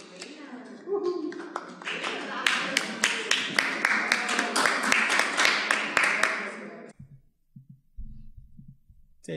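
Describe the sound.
Applause after a vote approving an initiative by 16 votes in favour, one against and no abstentions: a burst of many hands clapping fairly loudly for about six seconds, then it abruptly stops, leaving faint low thumps and murmured voices.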